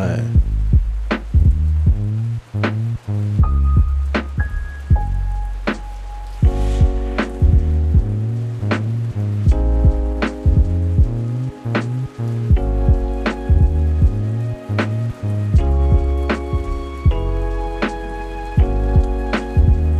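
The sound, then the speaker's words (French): A soft, steady patter of light rain sits beneath a mellow lo-fi track, with a relaxed, evenly spaced drum beat and warm sustained keys running throughout. “Ouais texturé, la petite pluie derrière.”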